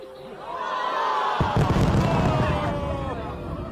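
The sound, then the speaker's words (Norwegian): Fireworks boom and crackle in a rapid cluster over a steady roar of a large crowd, loud and echoing, over the National Stadium in Beijing as the Winter Olympic Games were opened on 4 February. “Da Russlands leder Vladimir Putin besøkte sin kollega Xi Jinping i Beijing den dagen, da fikk han ikke bare med seg fyrverkeriet over nasjonalstadion idet årets olympiske vinterleker ble åpnet”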